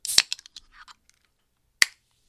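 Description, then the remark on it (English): A can of ginger lime soda cracks open with a sharp pop, followed by a short burst of fizzing crackles, then one more crisp click after a pause. No one speaks. “Ginger lime. I'll uh, get the audio.”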